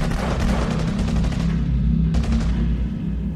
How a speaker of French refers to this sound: J'entends au loin des coups de feu, et mes camarades doivent tomber les uns après les autres.